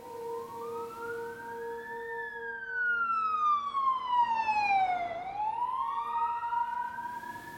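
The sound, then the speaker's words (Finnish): An ambulance siren wails as the ambulance arrives at the scene, its pitch gliding slowly up, sweeping down, then climbing again, loud and steady over a low background hum with no one talking. “Lopputulos oli se, että ambulanssi tuli paikalle ja mun pikkuveljelle ei ollut mitään hätää, mutta sitten mun äiti ja sisko, niin ne kiidätettiin ambulanssilla sairaalaan”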